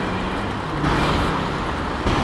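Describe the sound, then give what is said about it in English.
An old gasoline- or diesel-powered city bus passes in the street at night, its engine rumbling as a steady, heavy low drone with road noise that swells slightly a couple of times, with no talking. “This bus definitely sounded uh, like an old-fashioned gasoline-powered or diesel-powered bus.”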